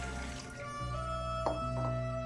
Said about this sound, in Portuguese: Na cozinha, ele abre a geladeira, enche um copo d'água e o coloca em cima da mesa.